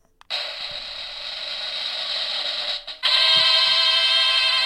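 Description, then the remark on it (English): A spinning giveaway prize wheel, spun to pick the winner of a Bluetooth speaker, rattles off a rapid, steady stream of clicks for several seconds, briefly dips, then resumes slightly louder, with no one talking. “Okay, so we're gonna spin, and then you got to text.”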